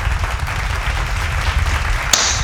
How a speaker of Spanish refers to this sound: me gustaría poner unos aplausos, pero creo que lo... Vamos a decir, lo colocamos, nos los merecemos.